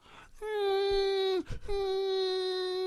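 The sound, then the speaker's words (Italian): A voice imitates a crying baby with two long, steady wailing cries separated by a short breath-like break, loud, with no other talking. “l'imitazione del pianto, quando piange un bambino.”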